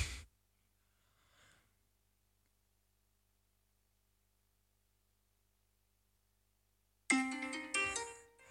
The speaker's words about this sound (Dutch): Oh, dit is mijn wekker.